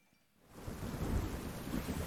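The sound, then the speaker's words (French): Heavy rain from a video game demo swells in after a brief quiet start and becomes a steady, dense hiss, with a deep rolling thunder rumble underneath. No voices are heard. “La pluie.”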